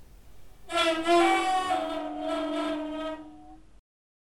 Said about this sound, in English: I have a vuvuzela. Don't ask. I also have a snare drum. And I know that trumpet players sometimes mute their trumpets by placing the horn end on the skins of drums. So I tried that, that technique with my Vuvuzela. And this is what I ended up with.